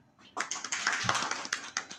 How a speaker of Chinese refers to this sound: 大家掌声欢迎。